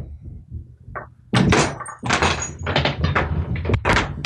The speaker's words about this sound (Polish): Poczekaj, zamknę drzwi.